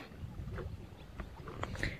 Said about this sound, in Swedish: faktiskt inte så att vi nästan ville hålla på tröjorna för att här blåser ganska friskt nere vid Kabbelefjärden. Vi står här på, på stranden här i sanden.